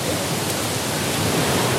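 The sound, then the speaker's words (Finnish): Loud, steady rushing water roars without a break, a dense hiss like a water park ride's flowing chute, with no voices over it. “No niin, me ollaan, me ollaan oltu nyt inkaputouksessa. Seuraavaksi me mennään villivirtaa ja viimeisenä on Magic Maya.”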